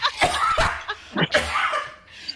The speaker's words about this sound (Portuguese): Ia tossir um pulmão.